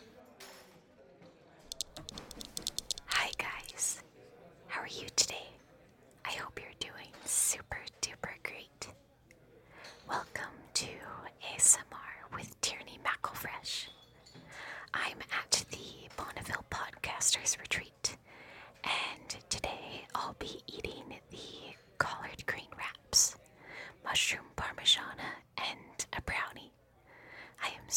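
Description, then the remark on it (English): Intimate whispering in a breathy ASMR mukbang style, interspersed with soft mouth clicks and smacking eating noises, continuing steadily throughout at a low volume. “Fundy Christians on one side and an ASMR mukbang on the other.”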